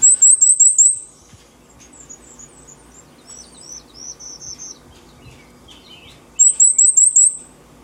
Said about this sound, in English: Again, another, um, we're listening to the song again of the Cape May warbler, but again, a high pitch, kind of hard to hear maybe on some radios here.